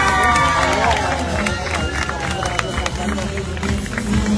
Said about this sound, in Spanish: Así que un aplauso para nuestra columna vertebral, nuestros funcionarios de colegio.